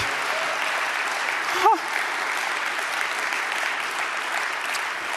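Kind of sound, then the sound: crowd, audience applause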